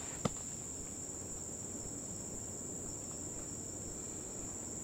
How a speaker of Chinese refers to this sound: 伴着这个虫子的叫声。 哦，傍晚傍晚会更热闹，这个声音更多。 嗯，太早来了，可能大家都还在休息。 啊，这个时候太热，他们也不出来。